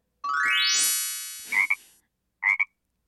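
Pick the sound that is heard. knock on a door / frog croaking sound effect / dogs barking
frog croaking sound effect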